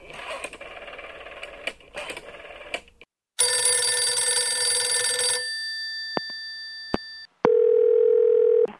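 A telephone call to a company director connecting, to be switched onto a conference line: a loud electronic ringing burst, a few sharp line clicks, then a steady low ringback tone, clear with no one speaking.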